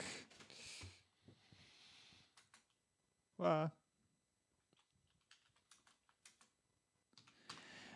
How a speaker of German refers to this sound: gebe dir die Tastatur, die Funktastatur. Sie dürfen einmal, tippen. Einmal Funk.